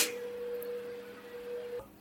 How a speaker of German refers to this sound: Es war es war, wartet mal ganz kurz, ich muss nur der Putzfrau sagen, dass sie den Staubsauger ausmachen.